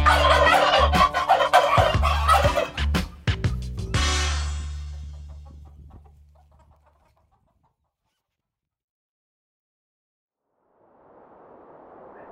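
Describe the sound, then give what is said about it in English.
A turkey gobbles loudly for a few seconds in a rapid, warbling burst, then the sound trails off into silence before a soft hiss of background noise rises at the end. “Okay, it's turkey time.”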